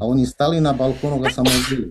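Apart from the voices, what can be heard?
sneeze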